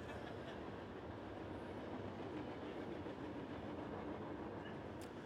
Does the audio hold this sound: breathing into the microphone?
no